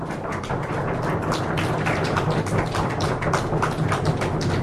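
Steady audience applause after a lecture: many hands clapping in a dense, continuous patter that stays at an even, fairly loud level throughout, with no voices.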